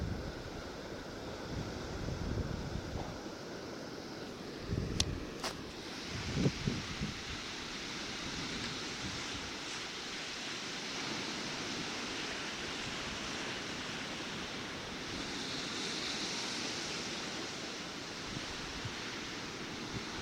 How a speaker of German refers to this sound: ich halte jetzt einfach mal mein Mikro so ein bisschen in die Wellen und dann kann man zuhören. Wie schön das klingt. Das Rauschen des Meeres. Zwischendurch ein paar Schreie von wahrscheinlich chinesischen Touristen.